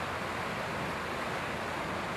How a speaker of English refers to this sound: I just want you to take a nice deep breath and just feel this river, okay? Just tap into the fluidity of that river right there. I don't know if you guys can see it for what it is, but look at that.